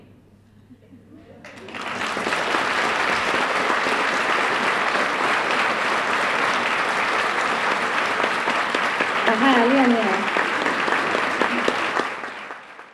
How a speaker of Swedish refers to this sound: Publiken ville inte släppa Solja Krapu. Hon applåderades in för extra nummer.